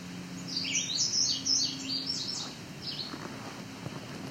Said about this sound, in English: back to entering forest, but it's a bit of an alvar too. Lots of exposed rock. Lots of red-eyed vireo here. This guy's especially loud.